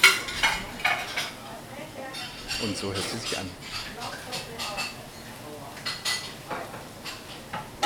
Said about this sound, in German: ist die Kanonenkugel, da klopfe ich mal drauf.